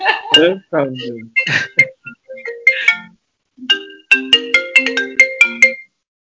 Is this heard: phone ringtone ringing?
yes